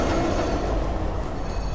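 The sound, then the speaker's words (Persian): A tram rumbles on its rails with a steady, heavy low drone that holds fairly loud throughout as it reaches the last stop and comes to a halt, with no voices. “مثل تمام اوقات خوبی که با سرعت سپری میشن زودتر از اون که فکرش رو بکنه به آخرین ایستگاه رسیدند و تراموا متوقف شد”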